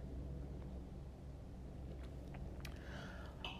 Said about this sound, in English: Do you hear? Do you hear the helicopters? Every five ten minutes now.